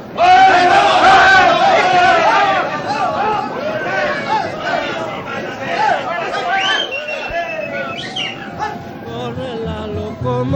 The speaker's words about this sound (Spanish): se escucha también gritar a los guerrilleros.